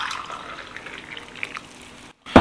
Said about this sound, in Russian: И теперь я беру стакан, и заливаю, э, выливаю то, что только что я наполнил, обратно в чайник